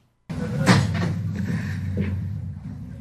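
A door opens as someone enters without knocking, with a sharp knock-like thump, followed by a steady low rumble and a few faint clicks as it swings.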